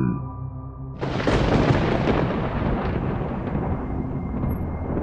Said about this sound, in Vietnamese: Bầu trời đột nhiên nổ sấm khan Tiếng sấm kèm theo một tia chớp giật lạnh người